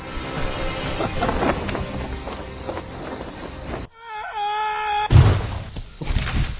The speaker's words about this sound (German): Was er jetzt gegen den ähm, Schornstein geknallt. Did you feel something? yeah, I felt it.